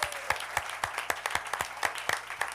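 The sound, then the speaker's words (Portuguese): An audience claps together in praise of the Lord at a Saturday gathering, in a steady, rhythmic beat, sharp unified claps about four per second over a dense wash of scattered hand-clapping, fairly loud with no voices. “Palmas para o Senhor!”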